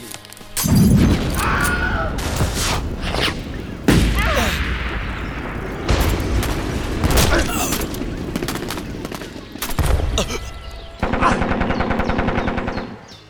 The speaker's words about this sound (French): Bataillon Feu à volonté